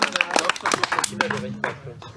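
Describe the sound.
Scattered hand claps ring out as a small group applauds, the sharp irregular slaps mixed with people talking over them.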